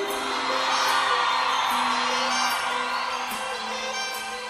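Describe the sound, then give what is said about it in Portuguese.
A large crowd whoops and cheers loudly and steadily for several seconds, a dense wall of shouting voices with a few rising yells standing out, and no speech over it. It is the shout of the lovers on the Love Songs programme of Rádio Futebol na Canela. “Quero ver o grito dos apaixonados aí.”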